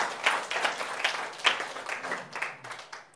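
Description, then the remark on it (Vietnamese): A crowd claps together to praise God in a steady burst of applause, dense, with slight rhythmic peaks as the clapping swells and continues for a few seconds. “Chúng ta vỗ tay ngồi khen Chúa điều này quý vị.”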